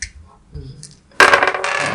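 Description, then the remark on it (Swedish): Three dice roll and clatter across a hard table, a loud burst of rattling that starts after a quiet moment and tumbles on for nearly a second. “Och det var tre tärningar man bör.”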